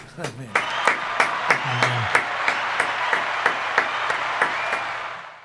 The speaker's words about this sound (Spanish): Qué bárbaro familia, aplausos.